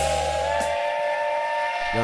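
A steam train whistle blows one long, steady, loud blast with a rich chord-like tone and a faint hiss, a low hum sitting underneath at the start and end.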